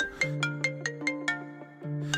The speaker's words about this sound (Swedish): Sen upphör hennes kontakter klockan 23.59. Då får hon ett inkommande samtal som hon inte svarar på